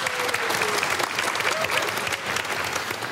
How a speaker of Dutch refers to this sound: Geef ook deze hier even een hartelijk applaus.